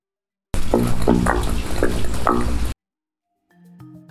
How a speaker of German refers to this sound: diese Querentwässerungsrohre, die sich unter Wanderwegen manchmal befinden, wenn die so richtig schön halb vollgelaufen sind, dann geben die ein schönes gurgelndes Geräusch von sich